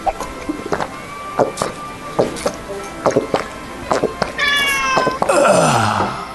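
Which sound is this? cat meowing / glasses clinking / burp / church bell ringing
cat meowing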